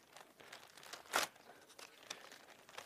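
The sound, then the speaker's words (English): Quiet rustling and crinkling of paper sheets being shuffled as someone gets their papers, with a short sharper crackle about midway and scattered soft rustles throughout; no one speaks. “I want to get my papers here.”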